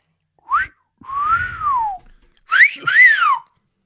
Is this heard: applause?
no